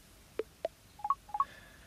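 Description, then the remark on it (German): Six short electronic keypad beeps in a quick, slightly uneven sequence as a passcode is entered to unlock an iPhone: two single tones followed by two close pairs, clear against a quiet background with no talking. “Codefeld und jetzt muss ich das Handy entsperren.”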